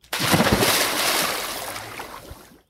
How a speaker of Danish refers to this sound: Men det lykkes ikke, og han ryger lige bagover ned i vandet.